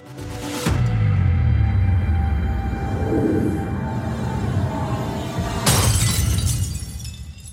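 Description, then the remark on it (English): A man clutches his chest and drops a brandy glass, which shatters with a sharp, bright crash, followed by a low rumbling drone and a second burst of noisy crashing near the end. No one speaks. “He clutches his chest, drops the glass.”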